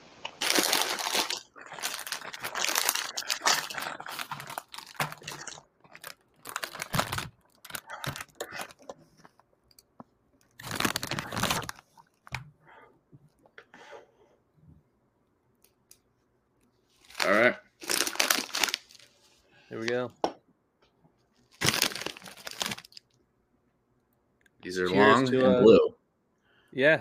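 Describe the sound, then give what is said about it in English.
A plastic snack bag is opened, crinkling and rustling, followed by crunchy chewing of Takis chips in short loud bursts separated by pauses, with brief voices near the end. “Chewing and munching on snacks. Everyone, make sure you uh, open the bag.”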